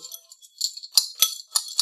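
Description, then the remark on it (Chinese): A spoon scrapes and stirs wet canned cat food to mix it evenly before feeding a cat, producing bright metallic clicks and scratchy bursts in an irregular rhythm, with a few louder strokes standing out. No one talks. “拌罐头的声音，哇，它好着急呀！”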